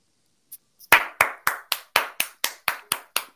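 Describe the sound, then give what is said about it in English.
Steady, rhythmic clapping in praise of KO: about ten sharp, evenly spaced claps at a brisk pace, moderately loud, with no voices, after a couple of faint taps. “Clap it up for him.”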